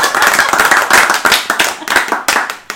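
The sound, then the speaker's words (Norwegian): A small group claps hands in brisk, overlapping applause to celebrate reaching 100 episodes, loud and steady for a few seconds before trailing off, with no talking over it. “La oss gi oss alle litt applaus her.”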